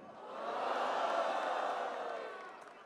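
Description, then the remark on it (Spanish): A crowd at a rap battle shouts and roars together in reaction to a punchline, a dense wash of voices that swells up, holds loudly for a couple of seconds, then gradually fades. “Y si la gente gritó mi punchline es porque la victoria no te la creyó.”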